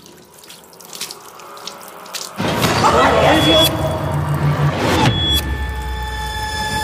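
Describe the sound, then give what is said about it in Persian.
A faucet gushes water into a sink for a few seconds, loud and splashy as someone splashes water on their face, then cuts off, leaving quiet with a faint hum. “برای آبم به صورتت بزن”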